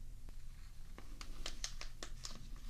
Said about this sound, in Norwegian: Um, so I'm gonna show this to you guys. I'm gonna unwrap it